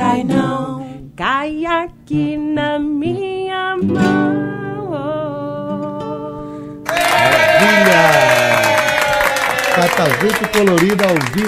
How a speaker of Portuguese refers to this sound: recebendo aqui os aplausos da multidão eletrônica da Tabajara.